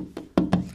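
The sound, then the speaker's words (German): A pigeon knocks three quick times on a window pane, sharp, the second and third knocks louder and landing in an uneven rhythm, with no voices. “Das, das klingt eher, als würde die Taube da am Fenster klopfen.”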